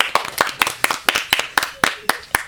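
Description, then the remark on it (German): A short burst of applause for the winning group, Group 1, after a prize is handed over: about a dozen sharp, crisp claps in a fairly steady, quick rhythm, moderately loud and sounding like just a few people clapping, with no talking over it. “Genau, einen Applaus.”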